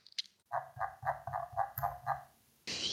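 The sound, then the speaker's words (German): A squeaky computer mouse scroll wheel gives a quick, even run of about seven nasal, duck-like squeaks, fairly loud, followed by a short burst of hissy noise. “Ähm, mein äh, Mausrad macht wohl angeblich das Geräusch einer Ente.”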